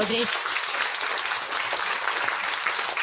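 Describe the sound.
A big round of applause, dense and steady clapping that holds at full loudness for about three seconds, with a brief voice audible at the very start.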